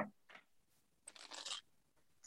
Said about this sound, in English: Okay, so I'm just shuffling the cards right now. These are circular cards. They are, which I love.